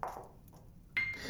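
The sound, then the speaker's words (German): A light bulb's glass shatters with a sudden sharp pop, followed by a brief bright ringing and tinkling decay. A softer crackle comes just before, and no one speaks. “Oh, oh mein Gott! Oh, die Glühbirne.”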